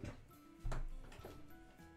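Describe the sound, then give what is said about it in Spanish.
A door is opened for a cat with a sudden clunk of the latch, followed by a brief rumbling, creaking swing. It sounds fairly quiet, with no voices. “Voy a abrir la puerta al gato que está como desesperado de la vida.”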